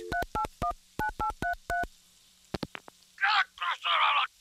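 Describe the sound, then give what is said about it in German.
The number of a pizza delivery service is punched in on a telephone keypad: about eight quick, evenly spaced touch-tone beeps, clear, followed by a few sharp clicks and some brief muffled, rustling noise. “Man nimmt ein Telefon, wählt die Nummer vom Pizzaservice und.”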